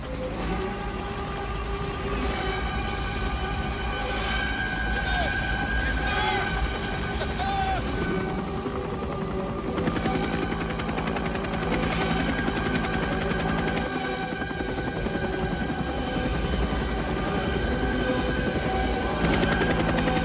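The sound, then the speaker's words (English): Loud, continuous rotor noise of helicopters flying in unison onto a beach in Vietnam in a film battle scene, mixed with bursts of rapid machine-gun fire, forming a dense, unbroken battle din that holds steady for the whole stretch. “The choppers filming in, uh, you know, Incredible.”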